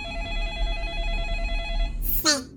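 A telephone rings with a steady, sustained electronic tone for about two seconds, then cuts off into a brief noisy burst and a quick falling sweep. No voices.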